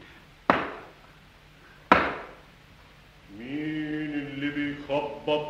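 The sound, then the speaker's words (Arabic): Two loud, sharp knocks on the first door, which has two rings, about a second and a half apart, each dying away quickly, followed by a steady harmonic tone, like a drawn-out voice or instrument, that wavers in pitch. “الباب اهو الباب الاولاني وادي الحلقتين اما خبط خبطتين”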